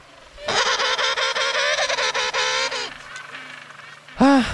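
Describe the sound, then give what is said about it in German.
Loud, braying calls of a penguin colony with a harsh, honking, pulsing rhythm fill most of the moment, then fade, followed by a short burst of another bird's call at the end. “Jede Kolonie klingt ein wenig anders, aber grundsätzlich kommunizieren Pinguine über Rufe und Lautsequenzen. Das klingt ungefähr so.”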